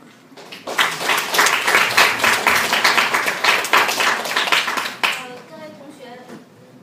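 An audience claps steadily for about four seconds, dense overlapping hand claps forming sustained applause that ends abruptly, followed by a brief stretch of quieter sound.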